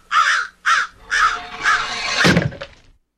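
A crow caws four times in quick succession, harsh and loud, the last call drawn out, followed by a brief dull thump. No one speaks.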